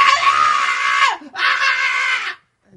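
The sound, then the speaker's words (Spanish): A young woman in her twenties, a passenger on a Delta Airlines flight from Raleigh-Durham to LaGuardia Airport, lets out two long, piercing screams as the plane nears landing, one right after the other with a brief gasp between them, loud, with no talking. “Gritando y diciendo que tenía que morir.”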